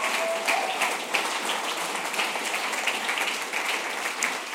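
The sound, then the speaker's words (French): Sustained applause from a crowd applauding a group of girls once more, a dense, steady wash of many hands clapping at even loudness for several seconds, with no voices standing out. “On peut les applaudir encore une fois.”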